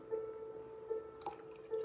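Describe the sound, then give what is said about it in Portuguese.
Drinking water being poured into a glass for prayer: a quiet, steady trickle with a faint ringing tone, swelling in a few soft gurgling surges, plus one brief clink partway through. “Deixa eu colocar a minha água também, que eu frutifico para mim.”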